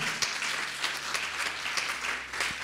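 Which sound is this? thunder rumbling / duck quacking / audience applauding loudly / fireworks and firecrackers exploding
audience applauding loudly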